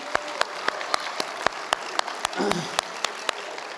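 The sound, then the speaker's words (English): Audience applause thanking several people who raise their hands, with sharp, evenly spaced claps standing out above a softer wash of clapping and faint crowd murmur, lasting a few seconds at moderate volume. “Let's thank them.”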